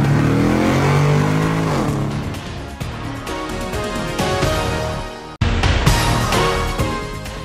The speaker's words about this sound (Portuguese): engata a primeira e pé embaixo, vambora!